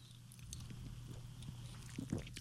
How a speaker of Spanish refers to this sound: Déjale, doy eh, un, pequeño sorbo.